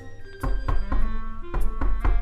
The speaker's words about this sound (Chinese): 在它修爪子的时候啊，突然门外传来了一阵敲门声。